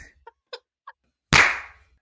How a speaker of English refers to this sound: We're recording, so we'll go in three, two, one. I'm going to clap again.